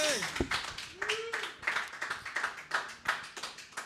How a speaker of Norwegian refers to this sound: Jeg er ikke sikker på hvor mye man hører av den applausen i disse mikrofonene, men uh, bare at den er der, det gjør eh, stemningen bedre.